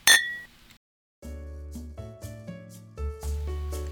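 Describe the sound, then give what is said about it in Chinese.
A single bright clink of glasses touching in a toast rings out at the start and fades within half a second, followed by a pause and then a mellow instrumental jingle with steady bass tones. “为你干杯。”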